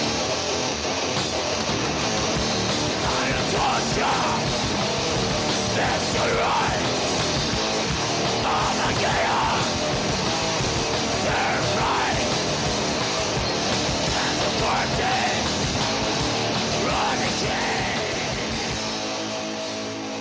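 Extreme metal, a dense, harsh wall of distorted guitars and pounding drums with raw screamed vocals, staying loud and relentless for twenty seconds before easing slightly at the end.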